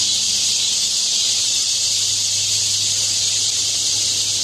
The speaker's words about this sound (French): Beaucoup, beaucoup de choses, entre autres vous entendez peut-être derrière moi un petit bruit qui grossit, qui grossit, qui grossit. Ce sont les cigales qui arrivent aux États-Unis.